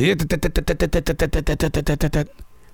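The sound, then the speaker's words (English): A voice imitates the rapid drumming of a woodpecker heard in a forest in South Charlotte, North Carolina, with a quick, even string of about sixteen sharp syllables lasting two seconds, loud, then stopping abruptly. “Woodpeckers really do scare me because they're not there because things are healthy.”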